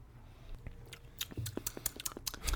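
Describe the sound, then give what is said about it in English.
Someone takes a first sip of cask-strength whiskey at 64.4% alcohol, with soft slurping, wet lip smacks and tongue clicks in a quick irregular run. Nobody speaks. “The first sip is could be a bit of a shock. So Jason had his first one. I'm going in for my first.”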